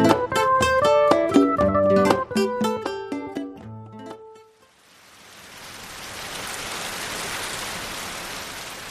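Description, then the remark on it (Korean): A short burst of tonal music ends, then heavy rain pours down in a steady, dense hiss that swells slightly and holds, fairly loud, with no voices; the downpour is blowing in through an open window into a living room. “장대비가 들이치는데 넌 잠이 오냐고.”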